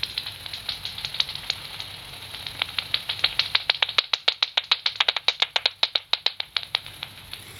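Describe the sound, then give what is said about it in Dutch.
Rapid series of sharp clicks from a bat detector, a serotine bat's echolocation calls, speeding up into a dense, fast-paced train of loud snaps over faint background hiss, with no voices. “Volgens mij was het te laat vliegen. Eh, dat was dus die vrachtauto onder de vleermuizen.”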